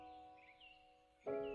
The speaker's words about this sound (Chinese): 你也可以听到小鸟的叫声。当你听到小鸟的叫声时，就仿佛它出现在你的面前，可是你不确定有几只小鸟